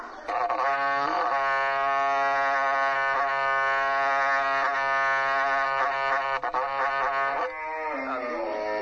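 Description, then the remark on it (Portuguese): A berrante cattle horn blown by a 16-year-old player in one long, loud, steady blare with rich buzzing overtones, wavering slightly in pitch before trailing off near the end, with no talking. “Toca um pouquinho de berrante aqui pro pessoal ouvir lá.”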